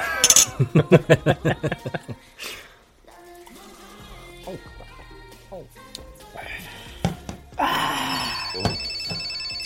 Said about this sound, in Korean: 야, 전화 왔다.